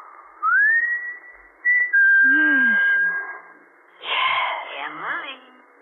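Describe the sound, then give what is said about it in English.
A man whistles a clear signal: a quick upward-sliding note, a short break, then one long steady tone held for about a second, followed by a brief burst of indistinct voices. “When he used to roll to the bottom of the hill and wait for you, and you could stand in the orchard until you heard him whistle.”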